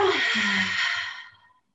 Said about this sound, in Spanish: lo que buscamos es abrir la respiración, que sea una respiración profunda, inhalando por la nariz y exhalando por la boca